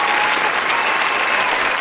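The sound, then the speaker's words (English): A crowd cheer sound effect: dense, steady clapping and cheering from many people that holds at an even, fairly loud level for under two seconds, with no one speaking over it. “I feel like that needs a crowd cheer.”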